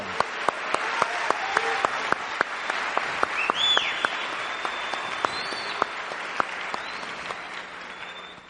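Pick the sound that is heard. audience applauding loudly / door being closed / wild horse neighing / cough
audience applauding loudly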